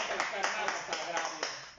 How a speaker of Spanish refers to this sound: aplaudiendo los micrófonos. A ver, a ver, que se escuche en el eh, el aplauso que estamos haciendo esta noche.